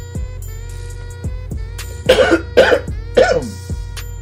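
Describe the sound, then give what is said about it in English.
Three harsh coughs in quick succession, loud and raspy, over a steady low background hum with faint periodic ticks. “The next time I cough, I'll be sure to mute myself.”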